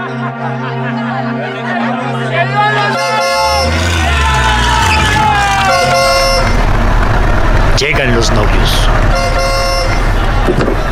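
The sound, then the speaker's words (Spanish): Car horns of a caravan honk repeatedly in long, overlapping blasts over a steady low rumble of the caravan's engines, loud, with a crowd's voices mixed underneath. “Se oyen los motores y los pitos de la caravana.”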